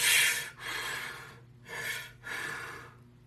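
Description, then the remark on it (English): A voice imitates heavy breathing: four harsh, airy breaths in quick succession, each drawn in and pushed out with short pauses between, loud with no talking. “He's like, dude, I could literally hear it breathing in my head. I could hear it taking breath.”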